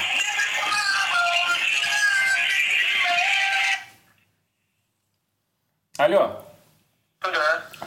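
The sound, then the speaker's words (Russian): A phone call's ringback plays as a steady, bright, tonal sound for about four seconds. It cuts off into silence, and then brief bursts of voices follow. “Такие гудки обычно у людей, которые срут на пол, типа размазывают говно по стенам.”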